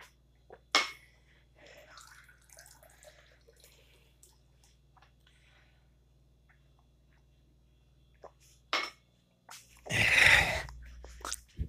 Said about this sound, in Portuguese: Só deixa eu tomar uma água, calma.